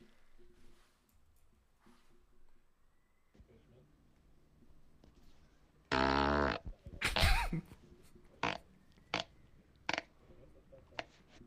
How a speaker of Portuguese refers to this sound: peido que ele mandou aqui se chama Mugindo Forte. Mugindo forte.